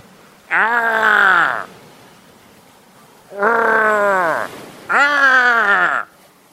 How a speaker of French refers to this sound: La diarrhée est insupportable et me fait pousser des cris qui viennent tout droit des enfers.